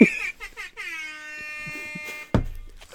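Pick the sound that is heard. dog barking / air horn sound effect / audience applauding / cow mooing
air horn sound effect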